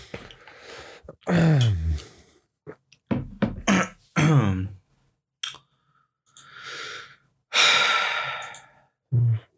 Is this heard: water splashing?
no